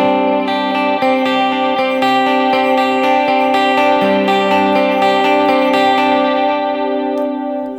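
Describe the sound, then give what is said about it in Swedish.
A clean electric guitar plays steady, rhythmic notes through two parallel stereo delays, dotted-eighth and quarter-note times split left and right, with raised mix level and gentle wavering modulation; the echoes stack into a dense, shimmering wash before fading out. No one speaks. “Och ni hör att det är tydlig modulation.”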